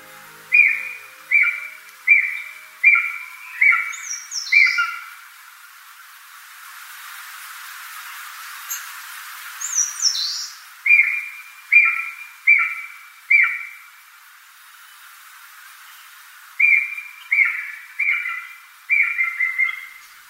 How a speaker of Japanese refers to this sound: それだけに山深い雰囲気の森は多くの野鳥たちに出会えます聞こえてきたのは青ゲラの鳴き声です